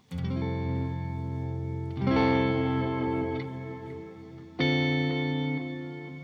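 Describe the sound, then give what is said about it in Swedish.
Three sustained electric guitar chords played through a shimmer reverb preset ring out, each swelling into a long, bright, shimmering reverb tail that hangs in the air and blends into the next chord. No voices. “Jag har en eh, med ett shimmer... Shimmer... Eh, de, eh, ska säga, reverb.”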